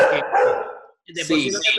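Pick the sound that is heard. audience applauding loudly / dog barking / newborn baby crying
dog barking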